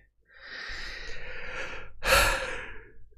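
yawn

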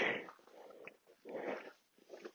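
dog growling and whimpering

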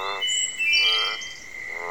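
frogs croaking

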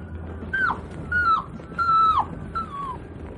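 dog reacting

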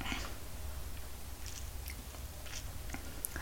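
sipping hot coffee

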